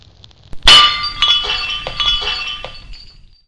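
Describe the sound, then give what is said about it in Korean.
A golden cup filled with wine, thrown into the air by Wukong, crashes and shatters loudly, a sharp burst followed by a cascade of tinkling, clinking fragments that scatter and fade over a few seconds, with no voices. “그 소리를 들은 오공은 냉큼 들었던 금잔을 공중에 내던져 버렸습니다.”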